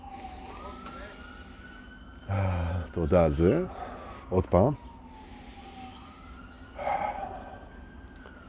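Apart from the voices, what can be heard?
emergency vehicle siren passing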